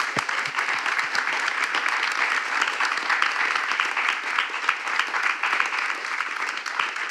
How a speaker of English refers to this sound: So a round of applause, please, for the great storyteller.